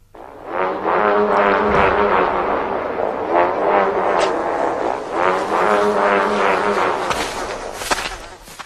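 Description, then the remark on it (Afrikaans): A didgeridoo, called the Australian bush telephone, drones steadily and loudly for several seconds as a means of communication, its low buzzing tone pulsing with shifting, wah-like rhythmic overtones, with no talking. “Die Australiese bos telefoon, oftelwel 'n donk.”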